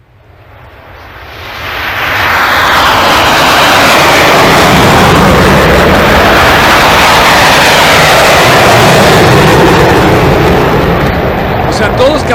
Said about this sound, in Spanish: O sea, no es, no es, no es un pájaro, no es un avión, es no, sí es un avión. Este, eh, te das cuenta de la diferencia que tiene tu oído.